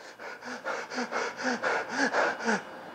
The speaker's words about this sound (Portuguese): Acelerar a respiração, eu já sinto os, os problemas de como se eu tivesse um problema. E não tenho, eu só estou acelerando a respiração. Eu senti minha mão ficar um pouquinho mais gelada, meu coração palpitou.